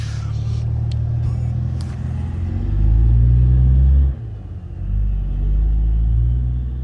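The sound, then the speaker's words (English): A car engine rumbles, its deep idle swelling into a louder rev, briefly easing, then revving up again as the vehicle, which had pulled up beside the speaker and sat there for about 10 minutes, pulls off. “I don't know why he uh, pulled up beside me and sat there for 10 minutes, but he decided he wanted to, so I guess he did”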